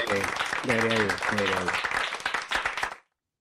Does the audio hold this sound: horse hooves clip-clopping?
no